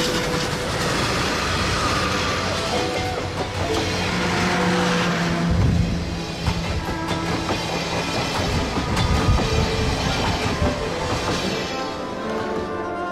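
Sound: train travelling on rails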